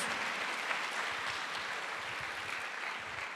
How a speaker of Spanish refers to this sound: Eso se merece un fuerte aplauso al que vive por los siglos de los siglos.